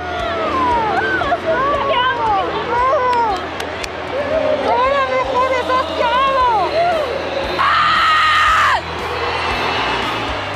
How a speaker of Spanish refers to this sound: Por primera vez después de nueve ediciones, el Mundial Femenil de la FIFA escuchó los festejos en español.